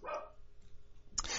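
dog barking in background

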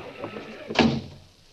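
door opening and closing

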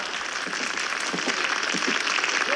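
audience applause

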